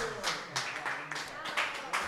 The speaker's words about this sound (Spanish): Oye, un aplauso muy fuerte ahora sí